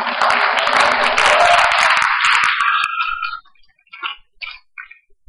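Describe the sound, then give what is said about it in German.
A church audience claps for first-time visitors in a dense, steady burst for about three seconds, then the applause thins out and fades, leaving a few scattered claps and short sounds. “Okay, wir geben euch auch nochmal einen Special Applaus heute Morgen.”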